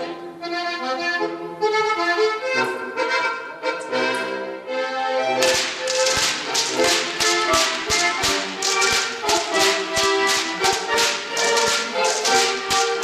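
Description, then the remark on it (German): Rhythmic whip cracking (Goaßlschnalzen) keeps time with lively brass band music; after a few seconds of music alone, sharp, loud cracks snap out in a fast, steady beat over the tune. “Das Geiselschnitzen mhm. hat schon ewig äh, Tradition, nur die Kombi mit der Musik erst so um 1960.”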